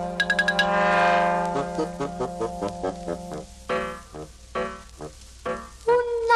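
Bright chime-like bell tones ring out over a sustained low drone, then give way to a steady run of short plucked notes in a gentle rhythm, clear; the opening of a song.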